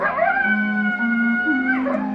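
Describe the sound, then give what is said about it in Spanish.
A coyote howls in one long, sustained wavering cry that holds steady and then rises slightly in pitch near the end. It is loud, with no voices around it. “Solo se oye el aullido del coyote.”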